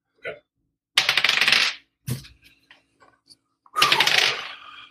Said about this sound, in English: Um, hit dice. So so you don't get a modifier on your hit dice. So it's for example for um, Kellen because he's a barbarian, you get a one d twelve. So you, so you could roll two d twelve for example.